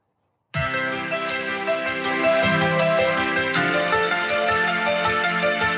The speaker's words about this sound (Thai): ได้ยินเสียงจิงเกิลป่ะได้ยินได้ยินได้ยิน